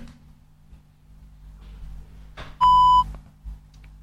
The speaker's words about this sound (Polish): Kiedy usłyszymy taki właśnie sygnał, oznacza to, że Penfriend jest uruchomiony i...